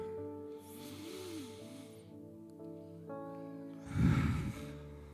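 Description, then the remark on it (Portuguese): A long, airy inhale followed after a pause by a louder, forceful exhale, breathy and hissing, with a low steady hum running underneath throughout. “Acabei de renovar células com a minha respiração.”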